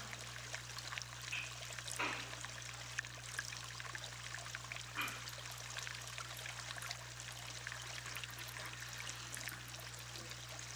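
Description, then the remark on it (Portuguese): Soft, continuous watery trickling and sloshing of water moving inside a container that is being gently moved, with a few slightly louder splashes over a steady low hum. “se for possível para você, Movimente esse recipiente levemente, observando com curiosidade o movimento da água.”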